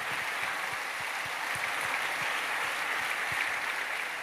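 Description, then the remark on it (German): A crowd at an evening event applauds the technicians, camera crew and sound engineers, a dense wash of many hands clapping at once, sustained and fairly loud with no voices standing out. “haben wir heute Abend übrigens auch noch schnell einen Applaus für all unsere Techniker, Kameramannen, Kamerafrauen, Tontechnik, all die Leute, die das organisiert haben.”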